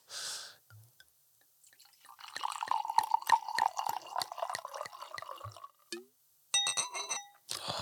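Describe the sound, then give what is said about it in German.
Wine pours into a glass for about three seconds with steady glugging pulses, fairly quiet. A few bright glass clinks follow near the end. No one speaks. “musst du weniger nachgießen, wenn es voll ist, ne?”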